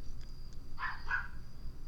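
A dog barks twice in quick succession, sounding somewhat muffled over a low, steady background hum, with no one talking.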